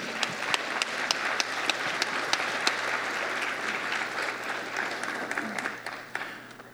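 A room full of people applauds Dr. Laramie steadily, dense overlapping claps with a few sharp individual hand claps standing out, sustained for several seconds before tapering off slightly near the end.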